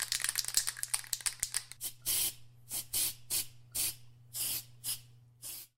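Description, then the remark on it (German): A spray paint can hisses in short bursts while spraying a tag: rapid clicking rattles and quick spritzes at first, then a steady series of longer hissing sprays, with no talking. “Ja, ja, warte, ich sprühe schnell ein Tag dran.”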